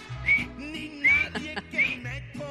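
A few short whistled notes rise and slide in a loose melody, with a murmur of low, steady sound beneath them; no words are spoken.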